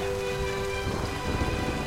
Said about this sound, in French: Cependant le ciel commence à se remplir d'un lourd grondement suivi d'une pluie mêlée de grêle.